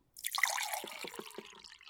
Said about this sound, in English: I like the sound effects of the water.